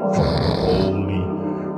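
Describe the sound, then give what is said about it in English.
A single loud, drawn-out snore imitated by a voice, rough and nasal with a raspy rattle, lasting under two seconds. “It really got me snoring like”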